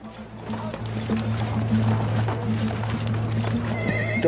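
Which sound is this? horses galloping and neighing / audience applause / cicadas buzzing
horses galloping and neighing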